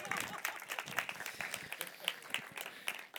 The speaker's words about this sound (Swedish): Ge henne en applåd också, är ni snälla.